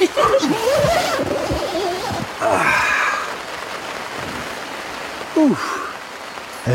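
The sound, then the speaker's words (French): Heavy rain at the start of the rainy season in Madagascar pours down in a steady, dense hiss throughout, while a few people talk and exclaim over it, with short bursts of voices near the start, middle and end. “en début de saison des pluies à Madagascar.”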